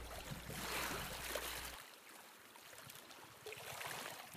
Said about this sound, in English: We leave you with the sounds of the water lapping on the beach a few days ago in Little Neck, down the road from York Harbor. It was a beautiful December day, temperature about zero, with just a dusting of snow and hardly any wind.